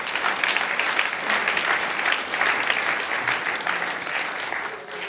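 An audience applauds God steadily, a dense wash of many hands clapping at an even, sustained level throughout, loud, with no voices standing out.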